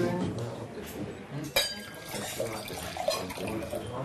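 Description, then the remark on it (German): Dishes clink and clatter as young women serve and clear tables, balancing the dishes on their forearms, amid a busy background, with one sharp, ringing clink standing out midway and lighter knocks scattered around it, while indistinct voices murmur. “Beim Auftragen und Abräumen balancieren die jungen Frauen das Geschirr geschickt auf dem Unterarm.”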